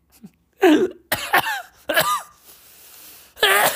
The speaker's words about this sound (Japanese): も う笑っちゃったらもう咳が出ちゃって大変だ。